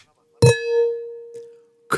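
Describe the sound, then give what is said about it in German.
A single bright clink of glasses of Italian red wine touching in a toast, followed by a clear ringing tone that hangs for about a second before fading, with a faint rustle afterward. “ich trinke erst erstmal ein leckeres Glas italienischen Rotwein Cheers Community.”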